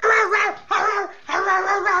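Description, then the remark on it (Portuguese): A man's voice imitates a dog in the middle of a song, letting out three loud, drawn-out barking yelps in quick succession, with brief gaps between them. “O cara imita Sim. um cachorro, irmão, no meio de uma música.”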